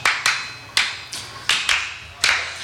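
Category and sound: human body sound, hand clapping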